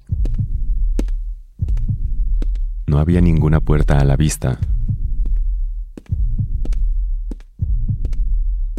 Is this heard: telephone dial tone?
no